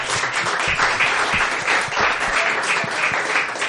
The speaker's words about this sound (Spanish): Sí, sí, un aplauso, un eh, aplauso para ellos.